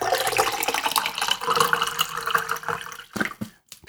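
Rum pours steadily into a container for about three seconds, a continuous splashing gurgle that thins out and stops with a few last drips.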